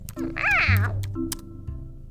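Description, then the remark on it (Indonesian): A cat gives a single drawn-out meow, rising and then falling in pitch, over a low steady hum. “Susah bicara dengan kucing keras kepala sepertimu.”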